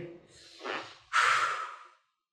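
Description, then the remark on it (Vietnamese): A speaker who is out of breath while talking catches their breath with two heavy breaths: a rough intake followed by a louder, forceful exhale, with no talking. “hụt hơi quá ra thở một xíu”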